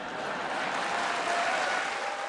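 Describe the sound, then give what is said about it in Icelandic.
A parliamentary audience applauds Keir Starmer's tribute to Tony Blair, a dense, even wash of many hands clapping together at a constant loudness, with no voices heard over it. “Þingheimur tók klappandi undir þessa kveðju til Blairs.”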